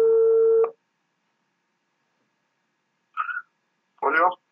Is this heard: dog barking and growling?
no